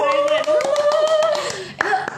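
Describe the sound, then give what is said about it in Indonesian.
Quick, steady hand claps repeat throughout, sharp and fairly loud, while a voice holds a sustained, wavering tone underneath before a brief pause and a final burst of claps. “wah keren kasih tepuk tangan iya.”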